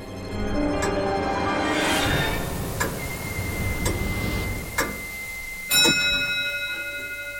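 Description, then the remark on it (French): A clock ticks steadily about once per second, and two bright chime strikes ring out at midnight and linger, the second one louder, with no talking. “Ça y est, minuit a sonné.”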